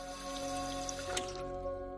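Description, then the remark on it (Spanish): Water runs in a soft, steady trickle from a drinking fountain in a hospital family waiting room as a man drinks from it, a quiet continuous stream with a faint background hum and a brief splash partway through. “En la sala de espera para familiares, Walt bebe agua de una fuente.”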